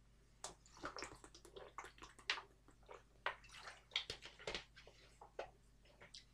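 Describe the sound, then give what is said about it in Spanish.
Someone takes a sip of water, with a quiet run of small wet clicks, slurps and splashy ticks over a steady low hum. No one speaks. “voy a, voy a beber un poco de agua y ya, ya paso con, ese partido.”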